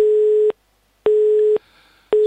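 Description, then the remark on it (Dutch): An emergency signal tone: a steady mid-pitched beep that sounds in three loud, evenly spaced half-second bursts separated by brief silences, heard clearly on its own with no talking. “En dit noodsignaal gebruiken we vanwege weer een probleem.”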